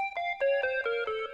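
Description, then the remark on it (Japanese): A short musical scale of about six clear, bright tones played quickly downward, step by step, with a minor-sounding color; close and steady in volume, no voices. “ちょっとマイナー気味のスケールに突然切り替わるっていう。”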